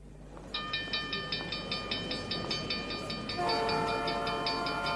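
A train rumbles past with a steady, rapid rhythmic clatter, then a loud sustained horn blast begins partway through and holds to the end. No one speaks.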